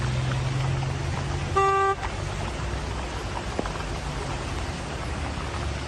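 A single loud car horn honks for about half a second over a steady wash of rain or water noise with a low rumble underneath. It is sounded to warn a man riding an inflatable mattress in a water channel during floods and heavy rain in Mexico. No one speaks.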